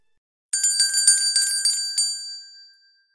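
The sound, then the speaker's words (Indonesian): Small bells jingle on a house's front porch at midnight in a quick, shimmering flurry for about a second and a half, then the bright metallic ringing fades away into silence. No voices are present. “Seperti suara kerincingan, suara dari teras rumah.”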